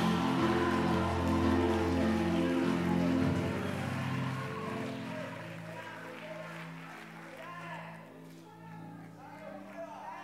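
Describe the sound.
An audience claps steadily and cheers to celebrate the Lord, making noise for Jesus at night: a dense crackle of many hands over sustained musical tones and voices, loud throughout before easing off slightly toward the end.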